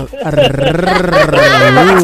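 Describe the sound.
A man on a show imitates a dog with his voice, one loud, drawn-out, howling bark lasting about two seconds, its low pitch wavering and rising slightly toward the end.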